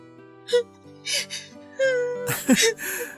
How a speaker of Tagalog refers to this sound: Bakit umiiyak ka na naman? Ikaw kasi. Nakakaiyak yung mga sinasabi mo.